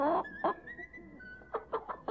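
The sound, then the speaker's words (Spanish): A hen clucks in short, irregular bursts, several quick clucks spread across a couple of seconds with brief pauses between them, over a quiet background. “Susana me pagó con esta gallina.”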